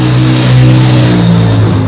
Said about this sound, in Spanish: Hagan afinaciones a sus carros, por favor. La contaminación, hijitos. Y el ruido, por favor.